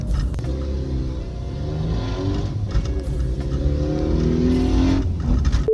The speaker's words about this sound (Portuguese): Mais uma interrupção aqui só para dizer que esse barulho de motor aí não é do meu carro, é de um carro que tava do meu lado ali. Achei que tava querendo me chamar para um racha, mas no fim das contas era só um escapamento estragado